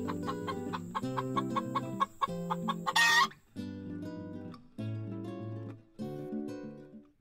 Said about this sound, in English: And more chickens.